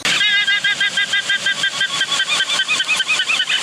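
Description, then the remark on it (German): A guanaco's shrill alarm call warning of a puma in Patagonia: a loud, rapidly pulsing whinny-like trill that repeats continuously for several seconds, with no voices. “Wenn das Guanako dreimal wiehert”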